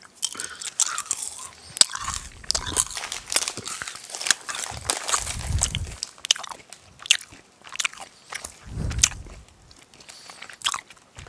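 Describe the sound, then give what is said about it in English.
Crunchy candy being chewed with loud, irregular crunches and wet bites, several mouths munching at once in bursts with brief pauses, no talking. “Do you also realize that we told our daughter, not my daughter, not to eat candy, and now we're eating candy?”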